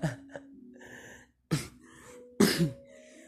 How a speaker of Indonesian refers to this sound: batuk-batuk gue kayaknya masalah kesehatan sih cuman sebenarnya gue sehat-sehat aja cuma batuk aja